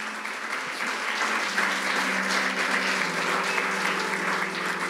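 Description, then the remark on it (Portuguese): A crowd claps loudly and steadily for several seconds as praise to the King of Glory, a dense wash of overlapping hand claps with no voices standing out, holding an even level throughout. “Eu te abençoo, dê um aplauso bem forte ao Rei da Glória, vamos lá.”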